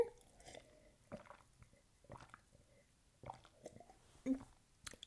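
Quiet sips and swallows of water, a handful of soft wet gulps spaced unevenly over a few seconds, with small mouth and liquid noises between them and no talking.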